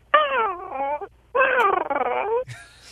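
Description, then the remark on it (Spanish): A voice imitates a man wailing and crying: two long, quavering sobbing wails with a short pause between, loud, ending with a brief higher whimper. “Estaba un camarada llorando.”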